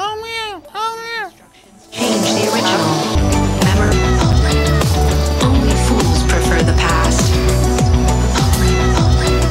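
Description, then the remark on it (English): A cat meows several times in quick, sing-song rising and falling cries, in tune with a record and seeming to say "only", then loud, dense music with a steady pulsing beat starts and carries on to the end. “But it sounds like the cat's saying only.”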